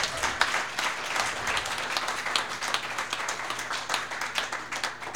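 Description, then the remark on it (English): An audience in a church applauds, many hands clapping in a dense, steady patter that holds at an even loudness for several seconds, with a low hum underneath and no voices standing out. “Let's give him a clap.”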